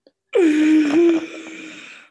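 A single drawn-out, whiny whimper from a nearby voice, like exaggerated mock crying, holding one wavering pitch and slowly trailing off, with no talking around it.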